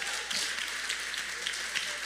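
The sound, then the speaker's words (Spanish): A crowd of many people applauds to God during a talk on faith. The applause is a dense, even wash of overlapping hand claps that holds at a fairly constant level for the whole two seconds, with no speech over it. “porque no le hace un aplauso a Dios si lo entiendes?”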